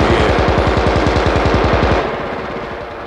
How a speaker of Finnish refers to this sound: Tuli hiljeni. Nyt vasta he huomasivat senkin, että heitä oli kylästä ammuttu koko ajan.